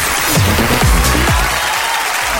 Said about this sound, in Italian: Esatto, applauso, applauso.